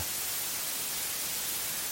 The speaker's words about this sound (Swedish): Det här är vitt brus. Vitt brus är en konsekvent signal av ljud som består av alla frekvenser som ett mänskligt öra kan uppfatta, från väldigt låga till väldigt höga. När man då spelar upp vitt brus så maskerar det ljud i butiken.